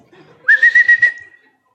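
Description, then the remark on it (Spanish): A person whistles a steady high note, pulsed into about five quick bursts over a second, in imitation of a shepherd's whistle calling a dog. Clear and fairly loud, with no talking. “Ah, va el pastor al frente y el pastor dice, digo, chifla de otra forma, pero no me sale.”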